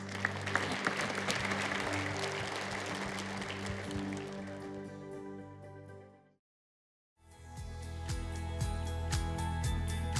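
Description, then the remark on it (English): A church audience applauds, giving praise to God, over sustained keyboard chords for several seconds, then everything fades to a brief silence before the music returns on its own. “Come on and give God praise.”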